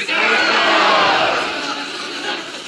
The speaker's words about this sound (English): If you went to conference, I'd love to hear about your favorite moment. Count of three, yell out your favorite moment. One, two, three.